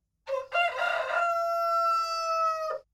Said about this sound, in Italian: Un giorno il gallo da combattimento che il fattore aveva portato da pochi giorni in fattoria, sentendo quel verso, cominciò a cantare più forte, richiamando l'attenzione di tutti.